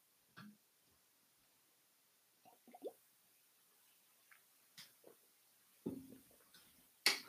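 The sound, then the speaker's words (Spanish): During a catechism talk, the speaker quietly sips water: a few soft, wet slurps and small mouth and liquid clicks, scattered irregularly, with a sharper clink or gulp near the end and no talking. “Pero antes de hablar del cuarto mandamiento, deja, toma un poquito de agua”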